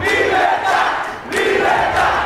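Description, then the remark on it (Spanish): A large crowd shouts loudly together in a protest video, a dense, continuous roar of many voices, easing briefly about halfway through before surging back just as strong. “Yo me lo creí porque yo había oído el video y en el video estaban gritando.”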